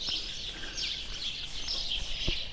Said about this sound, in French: Et là, la température est de 5 degrés, et déjà les oiseaux qui chantent, un beau ciel bleu sans nuages, et le village qui est tout endormi.